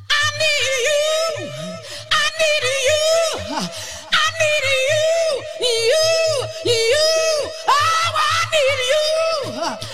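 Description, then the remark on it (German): A powerful female voice from the a cappella of a 1992 song belts and shouts without accompaniment, holding long wailing notes that slide up and down, loud, with a faint low thumping pulse underneath. “Die …, kennt keinen Arsch, 1992, äh, …. Und das ist ein A Cappella.”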